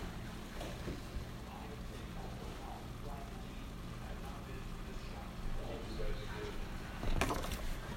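Chicken seasoned with salt and pepper sizzles steadily in a hot pan over medium heat, a continuous hissing crackle at moderate volume with scattered small pops and a sharper burst near the end.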